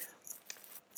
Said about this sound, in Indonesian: aduh maaf kresek kresek